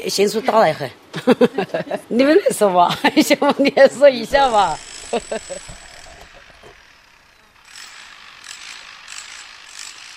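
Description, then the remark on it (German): People talk and laugh for a few seconds, then construction machinery takes over: a steady mechanical whine followed by a harsh, continuous rattling drill noise at a construction site on a large hill, where the internet company Tencent is drilling several tunnels into the hill. “Eine Baustelle an einem großen Hügel, einige Kilometer entfernt von Bäuerin Xü's Hof.”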